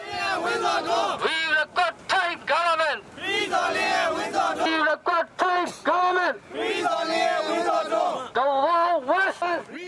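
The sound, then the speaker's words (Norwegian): Several hundred protesters in Thailand chant slogans against the authorities, demanding justice for two people sentenced to death, in loud, rhythmic bursts, many voices shouting together in unison with brief pauses between phrases. “Flere hundre demonstranter krever rettferdighet for de to dødsdomte og roper slagord mot myndighetene i nabolandet Thailand.”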